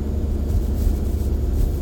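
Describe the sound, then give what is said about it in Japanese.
A steady, loud low rumble of a gasoline car engine straining as it climbs a hill, heard continuously as if from inside the vehicle, with a broad road-noise hiss on top and no voices. “まあ、その度にハイブリッドにすりゃよかったと、はい、でそのガソリン車がですねえー、うなりながらクラムヒルをしております”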